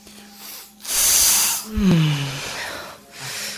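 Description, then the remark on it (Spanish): A long, airy, deep breath drawn in through the nose during a meditation breathing exercise, followed by a brief low hum and a second softer rush of air as another breath starts near the end. No talking. “Nos vamos a concentrar en nuestra respiración y vamos a procurar que esta sea profunda.”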